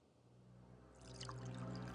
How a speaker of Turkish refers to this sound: Kadehi doldurup Selim'in önüne koydu